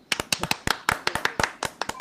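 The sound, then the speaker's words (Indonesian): A single person claps their hands about a dozen times in a quick, slightly uneven rhythm, each clap sharp, with no voices present. “wih gila gila salut gue tepuk tangan dulu ah”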